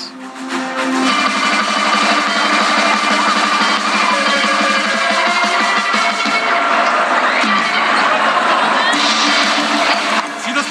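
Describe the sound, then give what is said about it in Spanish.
A large lucha libre wrestling crowd at Arena México, celebrating the arena's 66th anniversary, cheers and roars continuously, a dense wall of voices that stays loud throughout, with a brief surge of shrill whistling and yelling near the end. “Y esto es porque quien cumple estos 66 años son la Arena México. Vamos a escuchar.”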